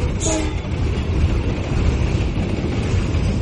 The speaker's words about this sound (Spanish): Un tren con locomotora y muchos, pero muchos furgones locos.